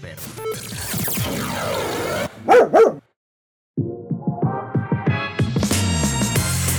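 Dogs bark in a few sharp, loud bursts, set among a busy musical backdrop with a brief silent gap before the music resumes.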